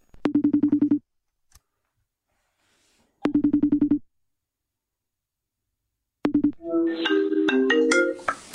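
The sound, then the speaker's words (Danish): A telephone ringing tone, a son phoning his father, buzzes in two clear, evenly spaced bursts with silent gaps, then a third ring is cut short as the line connects and other sound takes over. “Det lyder næsten som en phd afhandling så derfor ringer jeg til min far.”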